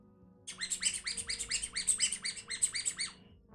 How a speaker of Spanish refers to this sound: ¿Qué es ese sonido? Un pato. Un pato. Que va cantando alegremente.